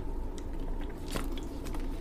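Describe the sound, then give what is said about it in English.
Someone takes a quick sip of water, with soft wet mouth noises and a brief crackly slurp near the middle, quiet and with no talking. “One second, I got to take a sip of my water.”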